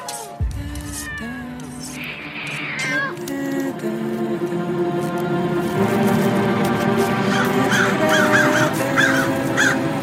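Crows caw in a series of harsh, repeated calls, some loud, others overlapping, set against a steady droning background that swells louder through the second half.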